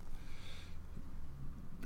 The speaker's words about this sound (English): Uh, you can hear the traffic in the background.